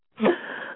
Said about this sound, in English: oh bless you.